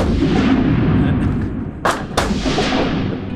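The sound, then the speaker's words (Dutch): Two sharp gunshots ring out in quick succession at a shooting range, cracking over a steady low rumble of background noise with no talking. “Ja, mensen zien het niet, maar ik spring dus nog altijd een, een 10 centimeter omhoog bij elke knal.”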